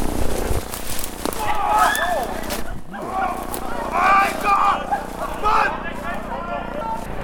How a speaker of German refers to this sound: Was war das jetzt gerade für ein Geschrei? Ich bin doch wieder Wildschwein. Was sagt er? Äh, Wildschwein. Wildschwein. Also der, uns sind etliche Wildschweine begegnet mhm. während dieser Walddurchsuchung.